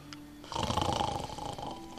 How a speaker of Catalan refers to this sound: En Picó roncava. Eren uns roncs cavernosos